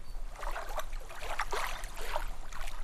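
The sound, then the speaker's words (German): A fisherman rows a small fishing boat on a lake back to shore: steady, rhythmic oar splashes, roughly one stroke every second, over a continuous wash of moving water, moderately loud, with no one speaking. “Der Fischer kann sein Boot dann wieder zum Ufer kehren und geht mit seiner Beute zum Dorf zurück.”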